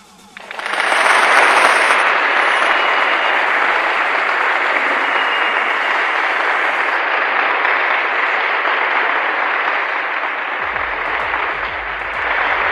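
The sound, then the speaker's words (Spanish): Steady applause from an audience after a poem is recited on a radio program, a dense wash of clapping that starts abruptly, holds at a loud, even level for several seconds, then eases slightly near the end. “¡Aplausos, por favor!”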